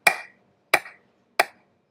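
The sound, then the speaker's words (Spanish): Three sharp hand claps in a slow, steady rhythm, evenly spaced, showing how football crowds in a stadium clapped in unison, each clap ringing briefly before a moment of silence, with no voices or other sounds around them. “Y esa era la animación, todos al unísono haciendo las palmas así.”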